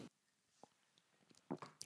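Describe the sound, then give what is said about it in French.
Someone takes a sip of coffee from a cup: a few soft, wet mouth sounds and a gulp, quiet and spaced out, with no talking. “Attendez, je bois une gorgée de mon café.”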